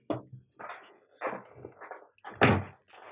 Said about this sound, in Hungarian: Apa, bocsi, csak be kell csuknom az ajtót.